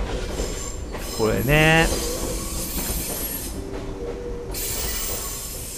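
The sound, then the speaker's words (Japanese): A train rumbles past, a broad steady roar with a sharp rising whistle or horn-like tone near the start, while a voice speaks briefly over it; heard outdoors near a line where trains pass about every 15 minutes. “あちょっと今電車がまたすいません”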